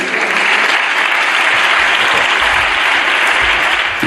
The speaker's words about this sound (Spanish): Fue muy aplaudida esta frase del presidente.